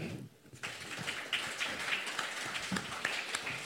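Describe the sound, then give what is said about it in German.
An audience in Wuppertal breaks into applause after a brief quiet moment, a dense, steady crackle of many hands clapping that holds at an even, fairly loud level to the end. “Großen Applaus für Michael Holt-Schulte.”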